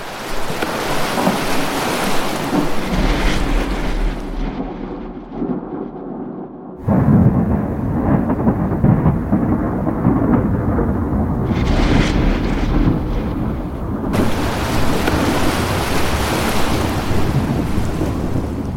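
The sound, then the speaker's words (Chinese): A raging thunderstorm with lightning, howling wind and pounding rain on the open sea at night, in which a cargo ship is swallowed by the ocean, in a film directed by Ang Lee; a dense, continuous roar with deep rumbles underneath that suddenly surges louder partway through. No one speaks. “狂风暴雨、雷电交加中，货船被大海吞没，只剩下少年派在救生船里载浮载沉。”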